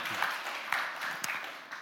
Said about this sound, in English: My wife and I celebrated this summer our 15th anniversary. And so, yeah, you can clap for that.